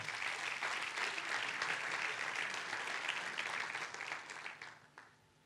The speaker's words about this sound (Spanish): Le puede dar un fuerte aplauso a Dios por eso.